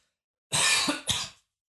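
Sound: coughing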